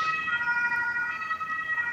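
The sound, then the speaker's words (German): An ambulance siren wails steadily in the background, its tones holding at moderate loudness as if passing by outside, with no voices over it. “Nö, hier fährt gerade der Krankenwagen.”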